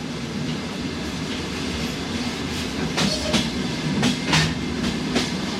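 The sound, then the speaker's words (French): Steady rumble of a moving train with rhythmic clickety-clack of wheels over rail joints, several sharp metallic clacks standing out in the second half; continuous, no voices; train sounds recorded and composed into a music piece. “Ça c'est un morceau qu'il a composé à partir de bruits de train.”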